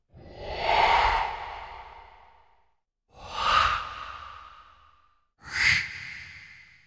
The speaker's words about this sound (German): Ja, das, ich nenne die immer Geister. Die klingen immer so ein bisschen wie Geister. Das sind auch veränderte Stimmen. Also man denkt, es ist eine Stimme, es ist so eine Art Hauchen.